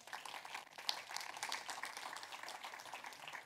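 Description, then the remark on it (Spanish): An audience applauds the Lord during a Spanish-language sermon one morning, a steady, dense wash of many hands clapping at an even level with no voices standing out, filling the whole stretch without a break. “Le da un aplauso al Señor esta mañana.”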